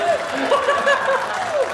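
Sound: applause sound effect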